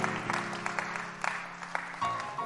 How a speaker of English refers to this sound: Clap your hands to the Lord and praise Him.